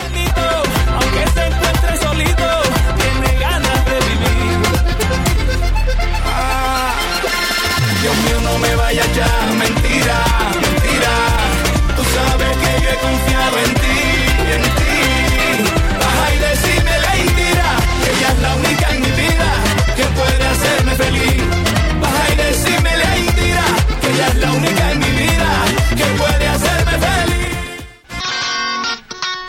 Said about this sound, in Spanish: la canción … que era un clásico del vallenato y lo han modernizado